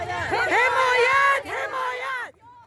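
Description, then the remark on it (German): A group of women protesters in Kabul shouts slogans together in loud, raised voices, calling for support and for everyone to be let into university, two sustained bursts of chanting with a brief dip between them, forceful, fading out at the end. “Unterstützt uns, ihr Menschen mit Würde, schreien sie und ihre Mitstreiterinnen immer wieder.”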